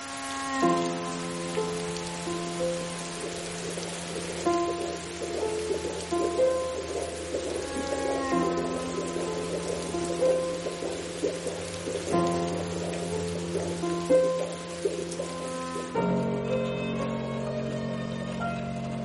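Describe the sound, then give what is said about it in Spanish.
Steady rain patters against window glass in a continuous, even hiss, heard from inside a home, with soft sustained musical tones shifting slowly underneath; no voices. “Luego está en casa pensativa viendo la lluvia caer a través de los cristales.”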